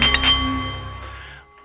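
A single struck Nepalese meditation bowl rings out, its bright sustained tones humming steadily and fading slowly over a second or so, heard alone with no talking.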